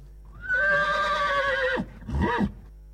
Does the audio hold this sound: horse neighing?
yes